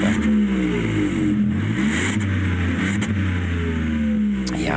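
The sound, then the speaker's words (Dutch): The small 1-liter, three-cylinder, 115 hp engine of an up GTI hot hatch revs up and down, its harmonics rising and falling in a few quick throttle blips over a steady idle hum, with no talking. “de up GTI, de kleine hot hatch, 1 liter, 3 cilinder met 115 pk. Even, even reffen, kunnen we wel even doen, toch?”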